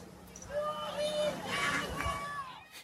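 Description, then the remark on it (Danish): A crowd at a Black Lives Matter street demonstration in Germany: many voices overlapping in a loud, steady hubbub, with raised shouts rising above the din and no single speaker standing out. “Det her, det er lyden af en af de mange Black Lives Matter-demonstrationer, der i løbet af sidste uge er blevet afholdt i Tyskland.”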